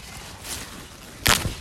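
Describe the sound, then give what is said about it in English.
A single sharp, crisp snap as a rhubarb stalk is pulled from the plant, loud, following a quieter rustle, with no talking. “So so strong, I couldn't pull it out.”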